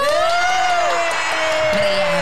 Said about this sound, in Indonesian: Tepuk tangan dulu, tepuk tangan.